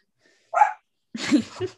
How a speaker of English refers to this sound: that's that's my Charlie. So okay, that's my dog. I apologize. She gets a little excited when I talk about you know these.